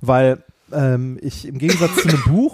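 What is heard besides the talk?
cough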